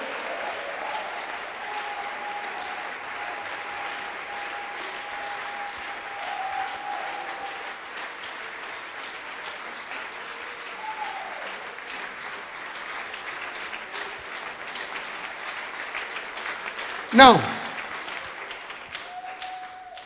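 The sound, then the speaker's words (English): A crowd applauds steadily for about twenty seconds as a clap offering to the Lord, dense continuous clapping from many hands, with a brief sharp burst near the end and a single spoken word as it fades. “Give the Lord a wonderful clap offering.”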